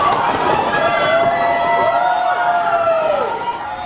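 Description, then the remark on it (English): A loud crowd erupts in rising, sustained cries of excitement as thousands of lined-up cereal boxes come down, many voices overlapping in a continuous roar that swells and holds for several seconds before easing slightly at the end. From a 2021 TMJ4 News story. “they had lined up thousands of cereal boxes”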